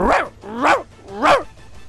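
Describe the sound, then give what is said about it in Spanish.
Three loud barks in an even rhythm, roughly half a second apart, a person's voice imitating a dog in a joke where a dog asked to recite the Lord's Prayer barks instead. “Que te he entrenado para que recite el Padre Nuestro perfectamente y te pone a ladrar.”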